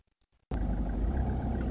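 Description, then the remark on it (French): After a brief moment of near-silence, a deep, steady rumble starts abruptly inside a parked car late in the evening and continues loud, with no voices. “Et ça, donc, c'était euh, quand j'étais dans la voiture, juste avant de, de, commencer mon training tard le soir, après ma séance piscine.”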